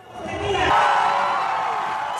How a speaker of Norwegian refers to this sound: Sist søndag jublet Santos tilhengere da det ble klart at han var vinneren av presidentvalget.